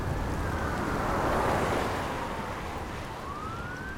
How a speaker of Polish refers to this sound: Wiał zimny wiatr.